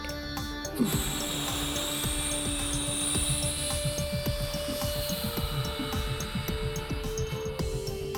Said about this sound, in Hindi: तभी रेत का तूफान आ जाता है